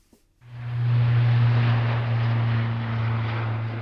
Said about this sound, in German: Spektakulär ist der Auftakt von Air Defender nicht unbedingt. In Wunsdorf bei Hannover starten etwas mehr Flugzeuge als sonst. Sie drehen im Tiefflug Runden über die benachbarten Ortschaften und landen wieder.